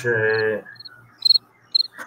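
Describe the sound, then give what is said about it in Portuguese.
A cricket chirps in short, high-pitched trilled bursts, two clear pulses in quick succession after a brief, low voiced sound at the start, with quiet gaps between. “Coloca o grilo.”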